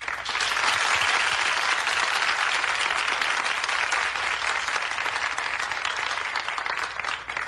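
Sustained audience applause on a television show for a guest, a dense, steady wash of many hands clapping at even loudness for several seconds, fading slightly at the end, with no talking over it.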